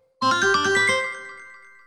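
A bright metallic gong chime rings out alone, with a quick flurry of rapid strikes that blend into a shimmering tone and fade over about a second.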